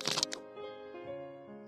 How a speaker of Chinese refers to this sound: 是从高高的大树顶上传来的。嘟嘟嘟嘟。啄木鸟在凿今晚过夜的小房子。